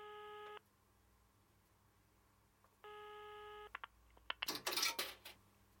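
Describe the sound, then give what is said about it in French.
A telephone ringing tone sounds twice with a pause between, followed by a few sharp clicks and a brief clattering burst, like coins dropping into a payphone, as someone calls their father for help. No one speaks. “Là, je me suis enfuie pour la première fois, essayer d'appeler à l'aide et j'ai appelé mon père.”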